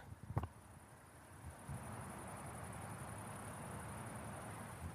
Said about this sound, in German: Sag mal, hört ihr die Grillen? Ich halte euch mal raus, warte mal.